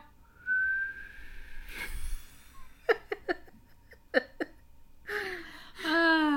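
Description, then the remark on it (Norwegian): Someone tries to whistle: a thin, wavering tone fades into breathy air blowing, followed by short huffs and a burst of laughter-like voicing near the end. “Det ser ut som du blåser ut et uh, bursdagslys,”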